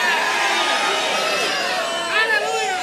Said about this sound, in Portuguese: O diabo dizendo para você: você não vai conseguir. Aí você dá um grito de vitória.